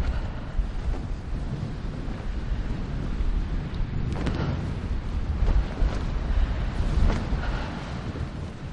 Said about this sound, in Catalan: el vent va ser algo com que, que ens vam trobar en el rodatge i, i el vent va jugar de manera molt forta en la pel·lícula